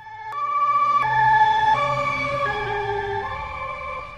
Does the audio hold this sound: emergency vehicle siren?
yes